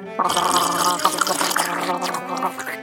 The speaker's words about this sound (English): We're very good slurpers. You are not supposed to slurp!